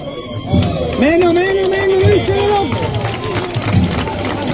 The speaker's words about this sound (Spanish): Ya estamos a la altura del Instituto Diego de Goma y Quesada y los sonidos que oímos son internos del interior del paso de misterio.